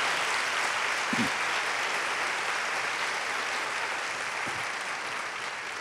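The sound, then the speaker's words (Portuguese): Sustained applause from a large audience at a church service, a dense, steady wash of clapping that holds at an even level for several seconds with no voices on top. “Quero dar mais um aplauso. Aqueça aí as suas mãos.”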